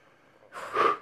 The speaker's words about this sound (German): Ich schnaufe mal durch.